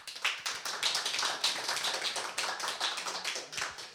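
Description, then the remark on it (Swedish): An audience in Stockholm applauds two representatives of Ung Kraft with a dense, steady patter of many hands clapping at once, holding an even, moderate loudness throughout, with no voices. “En applåd för dem.”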